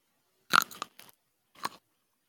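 A crisp ASMR-style bite into a grape followed by a few wet, squishy chewing crunches, with a brief pause before one more juicy chomp; no talking.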